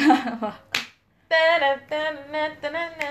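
A single sharp hand clap cracks out briefly between voiced sounds; a short vocal bit comes before it, and after a brief pause a sustained, tuneful voice continues.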